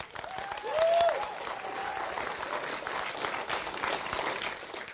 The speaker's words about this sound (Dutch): En ik zeg je vrienden, geef, geef hem een applausje. Als je, wil, als je hem een applaus wil geven, geef hem een goed applaus.